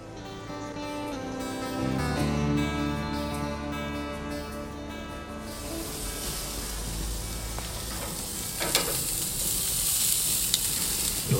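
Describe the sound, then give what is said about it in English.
A few seconds of steady tonal music give way to a continuous sizzle of food frying in a pan, a bright crackling hiss that holds steady to the end. “sizzle there. A little sizzle.”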